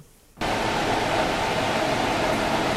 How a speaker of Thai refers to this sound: ตัวดูดควันใช่ครับถ้าถ้าดูถ้าสังเกตควันมันลมมันจะออกตรงนี้พี่ลมมันจะออกแบบนี้เนี้ยแล้วมันก็จะวนเลยนะซึ่งซึ่งในนี้ครับ มันไม่มีปล่องอะไรเลยปกติดูดจะต้องออกนอกห้องใช่ครับใช่ครับ